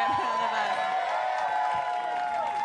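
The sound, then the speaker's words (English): A loud, steady wash of audience cheering and applause fills the space, with scattered voices whooping and calling out over the clapping throughout. “I See, women, women get applause for that.”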